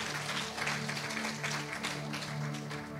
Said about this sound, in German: Hey, Gott verdient einen Applaus. Ah, das ist unser Applaus für Gott. Nee, Gott verdient einen fetten Applaus, Leute.